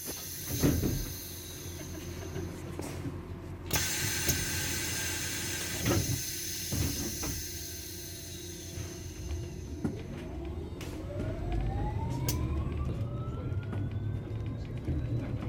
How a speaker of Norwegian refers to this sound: Eh, så jeg har tatt opp ett minutt med eh, AtB. Eh, lyden av AtB-bussen i dag. Jeg tok buss. Vær så god.